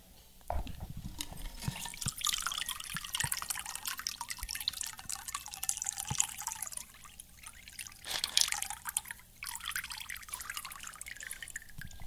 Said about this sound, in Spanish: se tienen que quedar con la segunda parte del shaker, que es la que tiene el colador, digamos. Solo le quitarían la parte de arriba, para que entonces con el colador salga todo el contenido, contenga los hielos y quede en la copa solamente la mezcla.